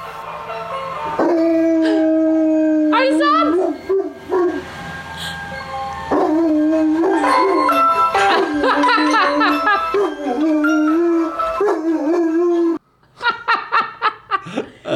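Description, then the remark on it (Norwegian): A dog howls in reaction to a passing ice cream truck, in long, wavering, drawn-out cries that rise and fall across several bursts, followed by a short spell of breathy laughter near the end. “har … sendt oss en liten video av at hunden til foreldra reagerer på isbilen”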